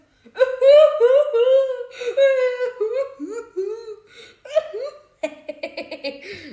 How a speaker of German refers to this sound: So weint die.